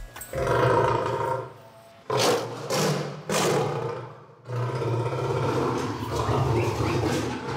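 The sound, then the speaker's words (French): Several deep, rasping roars and snarls from white lions in their zoo enclosure, angry at the arrival of the veterinarian, rumble in overlapping bursts, loud and aggressive, with a brief pause before another angry roar builds and sustains. “dans l'enclos des lions blancs, l'un des plus appréciés du zoo, l'arrivée d'Alexis le vétérinaire n'annonce rien de bon pour les pensionnaires.”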